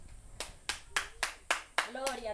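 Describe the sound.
Loud, sharp hand claps from a single woman clapping as praise to God, about eight in a steady rhythm, with a voice murmuring faintly underneath toward the end.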